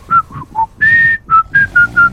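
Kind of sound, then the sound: human body sound, person whistling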